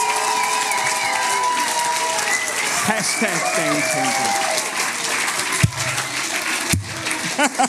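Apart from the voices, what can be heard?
audience applause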